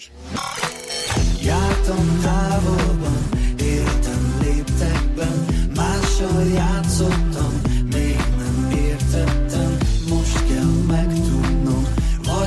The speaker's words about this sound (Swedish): Dagens första låt ligger på tolfte plats på den ungerska topplistan.